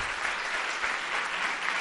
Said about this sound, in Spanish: Eh, si hay alguien aquí que no ha tenido que buscar entre líneas es la madre de Curro y me gustaría pedir un aplauso para ella por lo difícil y lo sanador que habrá sido el libro de Curro.